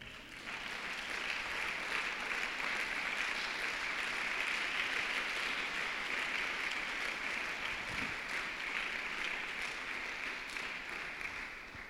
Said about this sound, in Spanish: Y los hijos de luz dan un aplauso al Señor aquí.